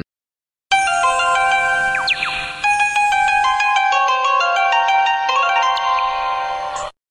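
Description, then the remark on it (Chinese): A Kyoto Municipal Subway Tozai Line departure melody plays, a piece titled 'The Hawk of Daigo-ji' using Japanese instruments, a bright tinkling tune of bell-like and plucked tones in a Japanese-style scale, steady and moderately loud for about six seconds with no talking. “行，那嗯，那我们来听一下京都地下铁东西线的这一段发声音乐。”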